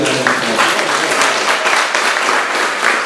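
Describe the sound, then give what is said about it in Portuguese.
A crowd applauds loudly and steadily, dense clapping filling the space with a few scattered cheers mixed in, sustained throughout without any talking. “Aí, barulho para”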